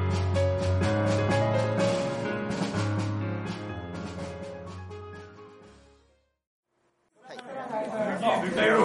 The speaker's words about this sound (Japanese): 今回はイベント中に収録させてもらったので、これから流す内容がですね、周囲の音が結構入ってしまっていて、大変ちょっと聞きづらくなっております。